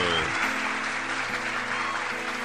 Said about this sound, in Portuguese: Vamos aplaudir de pé, Brasil.